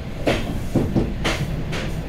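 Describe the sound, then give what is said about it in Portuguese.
A train rolls along the rails in the early hours after crossing the border into Ukraine, with a steady low rumble broken by regular clattering knocks from the wheels passing over track joints, fairly loud, with no voices. “Já de madrugada, depois do comboio passar a fronteira,”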